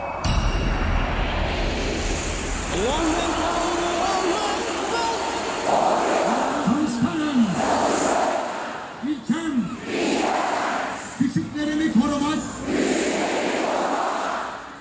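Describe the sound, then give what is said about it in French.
Tens of thousands of people in Izmir, Turkey, chant Atatürk's oath together in unison on Republic Day, 29 October 2013, a dense roar of many voices rising and falling in rhythmic phrases, loud and reverberant. “Ce que vous entendez là, c'est le serment d'Atatürk, entonné par des dizaines de milliers de personnes à Izmir, le 29 octobre 2013, jour de la fête de la République.”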